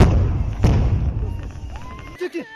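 A single heavy, booming thud of a tear gas round being fired, the first of several rounds, rolling over a low outdoor rumble, followed by faint shouts near the end.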